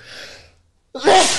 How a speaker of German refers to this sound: Ah, Entschuldigung. Gesundheit.